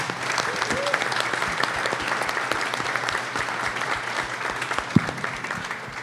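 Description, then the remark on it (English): A live audience applauds a special guest at the end of a live event, steadily for several seconds, a dense wash of clapping with many overlapping sharp claps and a few louder individual hand claps standing out. “Let's give a round of applause for our special guest this evening.”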